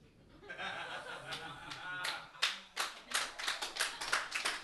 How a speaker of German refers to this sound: Jetzt müsst ihr auch klatschen, die gerade gesagt haben, er ist witzig. Jetzt müsst ihr auch. Ich sehe verschränkte Arme.